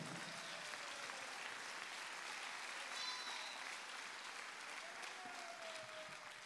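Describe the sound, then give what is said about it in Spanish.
An audience at a church service breaks into loud, sustained applause after being asked to clap if they feel accepted by God, a dense, steady wash of many hands clapping at even loudness for several seconds, with no speech over it. “Puede dar un fuerte aplauso entonces.”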